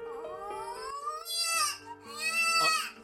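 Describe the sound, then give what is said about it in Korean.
A small child cries in a room in sustained, wailing bursts, the pitch rising and straining into two louder, higher sobs toward the end, with no talking over it. “그때 방에서 작은 아이가 우는 소리가 들렸다.”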